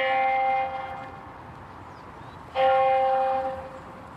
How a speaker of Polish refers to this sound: To, co słyszymy, to są dzwony kościoła świętego Mateusza już po drugiej stronie dzielnicy, tak? Katolickiego. Katolickiego kościoła, a my jesteśmy w tym momencie w części protestanckiej.